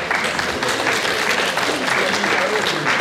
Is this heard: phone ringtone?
no